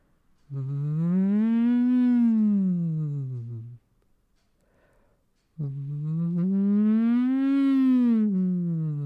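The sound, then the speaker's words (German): Two long voiced siren glides hummed through a drinking straw, each rising slowly and falling back down in a smooth arc, separated by a short breath pause; a steady, buzzy humming tone with no talking. “Wir flöten jetzt wie im Blockflötenensemble in den Strohhalm rein. Let's go. Machen kleine Sirenen.”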